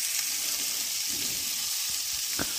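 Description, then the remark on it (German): Steady hissing sizzle of duck legs frying in a pan, a dense crackle filling the whole clip with a few soft pops and a brief sharper spatter near the end, no talking. “Da lassen wir jetzt ganz gemütlich die Entenkeulen erstmal rösten.”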